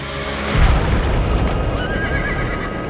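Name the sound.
horse whinnying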